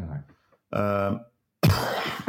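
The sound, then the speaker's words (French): A short cough bursts out after some brief voiced sounds from a person, breathy and rough rather than loud, with quiet gaps between the sounds. “Ah, une petite toux, ça Ça Merci Covid.”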